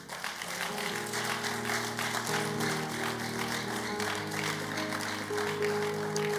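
A church audience applauds the Lord steadily, a dense wash of many hands clapping at a constant loudness, with sustained musical tones, like an organ or keyboard, holding underneath throughout.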